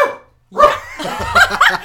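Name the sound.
jack Russell terrier barking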